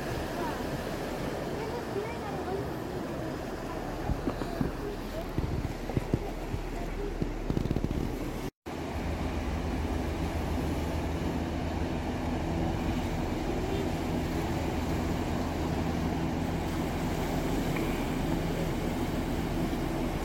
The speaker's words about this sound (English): But uh, so what we're going to do is we're going to wait for the boat to leave and we're going to wave it goodbye. And uh, our week trip here on Manitoulin Island begins.